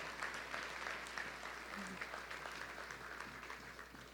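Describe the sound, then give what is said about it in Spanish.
Steady applause from an audience during a sermon fills the whole stretch, a dense wash of many hands clapping at an even level with a faint murmur of voices underneath. “Démosle un aplauso, hermano.”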